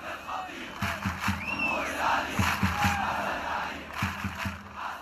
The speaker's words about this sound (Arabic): بيتجمعوا بالمدرجات اللي ورا المرمى بيوقفوا كل المباراه بيرفعوا التيفو أو اللافتات واليافطات الضخمة وبيشعلوا الألعاب النارية والبايرو أو الشماريخ وبيغنوا 90 دقيقة بلا توقف أغانيهم الخاصة